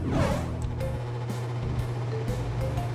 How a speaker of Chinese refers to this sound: 伴随着空调吹风的声音，小泼猴和哼猪享受的躺在沙发上，看着电视，吃着零食，享受着他们幸福的暑假。